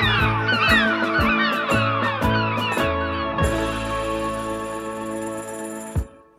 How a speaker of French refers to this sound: Au oh, gueule les mouettes!